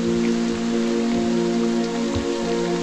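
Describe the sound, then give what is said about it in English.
A steady wash of added rain sound effect, a continuous hiss of drops on a surface, runs under a sustained low tonal hum from music, with no speech. “Um, it's the added rain.”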